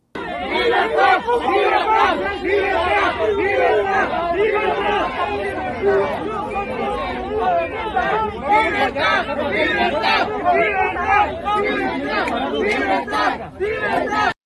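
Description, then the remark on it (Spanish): A crowd shouts and chants together continuously, many voices overlapping in loud, energetic hubbub with no quiet gaps: a protest by National Action Party (PAN) members in front of the Cuban Embassy in Mexico City, shouting at Cubans to return to their island. “PAN en compañía del presidente de la Comisión Mexicana de Derechos Humanos, gritándole a los hermanos cubanos que se regresen a su isla.”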